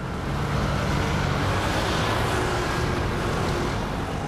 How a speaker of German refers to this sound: Okay, den Verkehr gibt es in Rom auch am Wochenende, zum Beispiel an der Piazza Venezia.